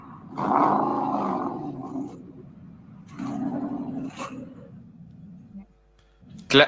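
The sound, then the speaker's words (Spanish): A multi-cylinder engine roars in two revving bursts, loud and gritty, with a quieter idle between them and a sudden sharp noise at the very end. “clásico sonido de una cierta configuración de cilindros.”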